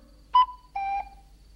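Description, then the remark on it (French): A voice imitates a cuckoo call: two clear, hooting notes, the second slightly lower and longer, sung loudly with nothing else around them. “Il suffit de crier d'une voix forte coucou, c'est facile, et c'est à la portée de n'importe qui.”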